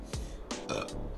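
A loud burp lasting about a second, with a low rumbling onset and a raspy, voiced middle that trails off, heard on its own without any talking.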